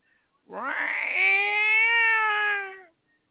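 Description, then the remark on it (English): A person imitates a bobcat scream: a single loud, drawn-out yowling wail that rises in pitch and holds for over two seconds before cutting off. “And all of a sudden, I heard a bobcat.”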